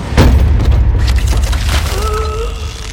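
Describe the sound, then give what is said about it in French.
A gallows floor gives way beneath a condemned man's feet during a hanging, with one loud, heavy bang, followed by a sustained low rumble and a faint, thin creak that rises near the end. No voices. “Le plancher cède alors sous ses pieds.”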